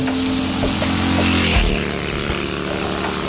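Heavy rain pours down in a steady, dense roar, loud throughout, with a low droning rumble underneath and no voices.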